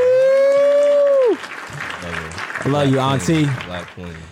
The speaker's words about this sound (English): let me get the applause button